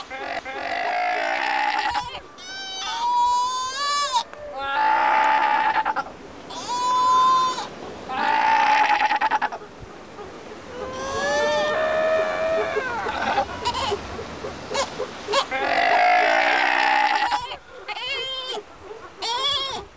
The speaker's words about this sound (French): Retrouvailles entre la mère et son jeune chez l'Otaria Fourrure subantarctique.